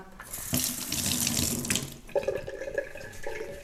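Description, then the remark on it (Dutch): Tap water runs steadily into a sink with a broad hiss, its splashing shifting as strawberries are rinsed under the stream, then settling into a thinner, ringing flow. “Eh, ik ga voor aardbeien wassen, denk ik.”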